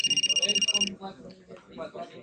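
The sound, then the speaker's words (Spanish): A telephone rings with a single rapid electronic trill, bright, lasting under a second before cutting off as someone begins speaking. “En efecto, el teléfono de los jefazos sonó.”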